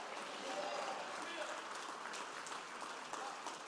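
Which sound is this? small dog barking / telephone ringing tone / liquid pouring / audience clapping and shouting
audience clapping and shouting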